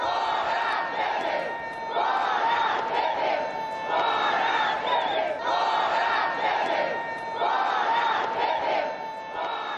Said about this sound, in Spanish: Durante la inauguración, el presidente brasileño Michel Temer fue apucheado. Escuchemos cómo lo recibieron.